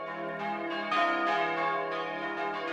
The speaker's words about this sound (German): Im Kirchturm hängen fünf Glocken. Sie laden ein zum Gebet.